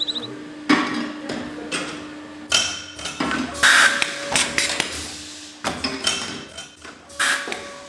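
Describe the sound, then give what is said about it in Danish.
A wine bottle labelling machine at a vineyard putting labels on wine bottles, a sound made 12,000-13,000 times a year: loud, sharp clunks and clacks at uneven intervals, a brief hissing burst and faint glassy clinks over a steady mechanical hum, with no voices. “Der bliver sat etiketter på vinflaskerne.”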